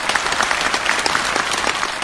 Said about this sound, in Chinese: 当全剧最后一个音落下，座无虚席的马林斯基剧院内，难以抑制激动情绪的俄罗斯观众将爆棚般的掌声与喝彩声献给了同台的中俄艺术家。